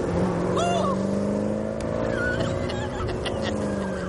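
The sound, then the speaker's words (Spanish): A Chevrolet car drives steadily through a town, its engine a loud, continuous low hum, with a few faint high chirps and squeaks rising over the rumble. “Los atracadores circulan en el Chevrolet por el pueblo.”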